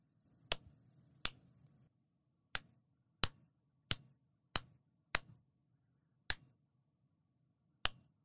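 Hand clapping: about nine sharp, crisp claps at an uneven pace, with pauses between them, over a faint low background hum. No one speaks. Someone sits on a red sofa in a living room, clapping over and over to make Dali come near.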